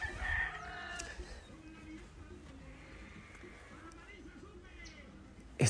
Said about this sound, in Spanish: Están los pajaritos.